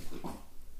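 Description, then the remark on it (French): A cat lets out a single short, whiny cry, lasting well under a second, fairly soft, with no talking around it. “Désolée pour le chat si vous l'entendez.”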